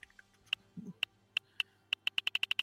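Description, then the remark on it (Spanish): Sharp clicks ticking at an uneven pace, first sparse and then speeding into a rapid regular run, as a roulette wheel is spun again, its pointer clacking past pegs. “Entonces vuelve a girar chisme. la ruleta y vamos a ver.”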